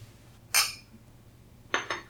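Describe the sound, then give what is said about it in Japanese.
A bright clink rings out, then after a pause two more quick clinks follow, fairly loud against a quiet background, as drinks are tapped together in a toast before tasting a mixed juice drink. “まあ、とりあえず乾杯しましょうか。”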